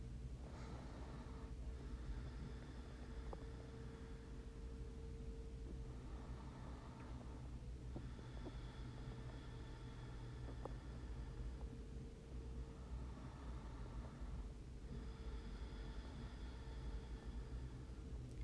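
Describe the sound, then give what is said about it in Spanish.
Slow ujjayi breathing through the nose with a slightly closed glottis: soft, ocean-like hissing breaths in a steady rhythm, about three long cycles, quiet and continuous over a low background rumble, with no talking. “Exhalamos, lo hacemos cerrando la glotis un poquito, una respiración Ushai, para percibir el sonido del mar, para ver nuestras olas, para ver nuestro, nuestra intensidad de olas.”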